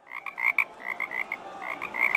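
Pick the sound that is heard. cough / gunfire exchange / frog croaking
frog croaking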